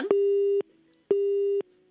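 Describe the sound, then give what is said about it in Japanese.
A phone busy tone after a phone line dropped during a radio call: two steady, mid-pitched beeps of about half a second each, separated by equal gaps of silence, with no voices present. “あれもしもしあらあ、ちょっと今、回線が途切れたみたいですね。”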